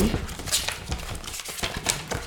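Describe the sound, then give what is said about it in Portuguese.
Crinkly plastic sleeves of a folder holding school worksheets being flipped one after another, a quick run of sharp rustling swishes and soft slaps, with no voices. “Boa, dá bom este barulho, ou não? Está bem da real. Eu à procura das folhas”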